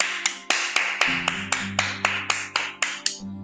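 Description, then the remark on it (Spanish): Steady, crisp clapping from neighbours on balconies at eight o'clock, about a dozen sharp claps in an even rhythm, with a low sustained musical tone humming underneath for most of it. “vieron en la tele que eran las 8 en punto y salieron a aplaudir.”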